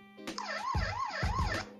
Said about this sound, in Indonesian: mobil polisi